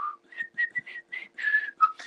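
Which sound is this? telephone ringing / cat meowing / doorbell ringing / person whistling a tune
person whistling a tune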